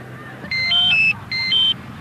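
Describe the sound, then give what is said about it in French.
A high-pitched, somewhat unpleasant electronic mobile phone ringtone plays two quick bursts of stepped, beeping notes, loud, over a low background murmur, on a beach. “les téléphones portables, c'est une sonnerie assez aiguë et un peu désagréable”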